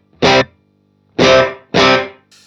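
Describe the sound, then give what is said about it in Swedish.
Three loud, distorted electric guitar chord stabs through an amp set to a Vox sound with a delay effect, each ringing out in a smeared, decaying tail, followed by a fainter repeat at the end. No one speaks. “Jag slår på ett feeling ja. delay där.”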